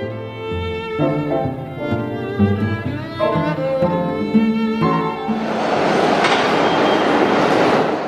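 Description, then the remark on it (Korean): A subway train, the first to enter the reopened WTC Cortlandt station in New York on September 8, pulls in. Its motors give off a stepped, shifting electric whine before a loud rushing roar takes over and holds steady to the end. No one speaks. “(9.11) 테러 17주년을 며칠 앞둔 지난 9월 8일 WTC 코틀랜드 역으로 첫 번째 열차가 들어옵니다.”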